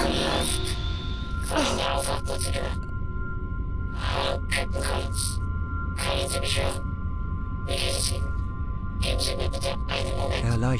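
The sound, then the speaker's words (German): A steady electronic hum with bright tonal whine, broken by recurring bursts of hissing static every second or two, all continuous and fairly loud throughout. “als ob ein Computer hochgefahren wurde. Das anfängliche Surren verstummte und wurde erst von einem statischen Rauschen abgelöst”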